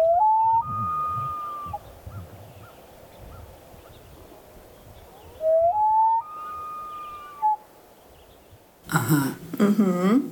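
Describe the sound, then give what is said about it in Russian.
A loon calls twice, each a long, mournful wail that rises and then holds a high, clear note, carrying over quiet background. Voices break in briefly right at the end. “Нет, это не волк. Это гагара.”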